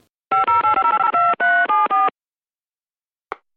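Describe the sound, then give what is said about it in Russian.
A quick, rhythmic sequence of telephone keypad dialing tones, about a dozen short beeps in rapid succession, loud, followed by silence and a brief faint click, dialing a call to the town of Volgodonsk in the southern region. “Возвращаемся в родные пенаты, и следующий мой звонок будет э, в южный регион, город Волгодонск”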